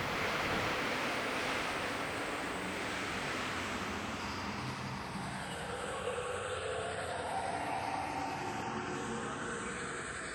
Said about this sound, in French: Accélération. Double salto arrière parfaitement réussi. Portées par le vent démoniaque, les feuilles dessinent des chorégraphies aux trajectoires improbables.